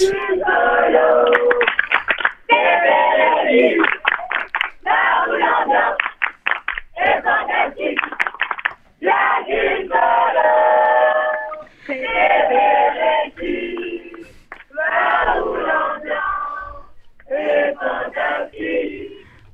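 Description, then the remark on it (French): A group of young people at Bereshit shouts a rallying cry together to show they are very happy, loud, in repeated rhythmic bursts with short pauses between chants. “On veut entendre un cri de ralliement pour dire que vous êtes super heureux à Bereshit.”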